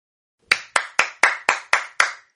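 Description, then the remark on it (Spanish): Applause for a poet's reading of her poems, heard as seven sharp, bright claps in a steady, evenly spaced rhythm, each with a short ringing tail, standing alone with no voices. “Otro aplauso enorme”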